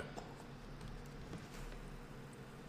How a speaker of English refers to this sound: We're gonna pour it in this fucking glass here.